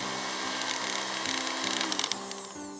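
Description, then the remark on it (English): A small motorized blender whirs steadily as it cuts dried seaweed into small pieces for seaweed paste, its high buzzing hum broken by faint ticking as the pieces get chopped, with pitch shifting slightly as the blades bite. “Step 1 Cut the dried seaweed into small pieces with a blender.”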